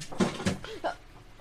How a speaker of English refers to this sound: The hounds are back, folks, and knocking things around. The hounds aren't graceful.